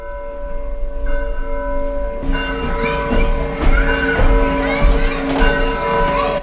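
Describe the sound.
A clock bell chimes as one of the sounds in a museum exhibition, with sustained, resonant ringing tones that overlap and linger throughout, fairly loud, over a faint background murmur of voices.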